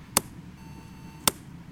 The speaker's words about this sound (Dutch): Ik ga naar eh, meetpuntje 1. Tik ik met, eh, met de hamer vijf keer nou, vrij zachtjes op zich met, op, op het spijkertje.